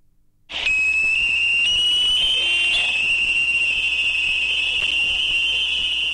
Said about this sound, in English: This is the sound of mid frequency active sonar. It generates a very loud pulse between 1000 and 5000 Hz, with a pulse duration of approximately 18 seconds. It's used for submarine detection less than 10 kilometers away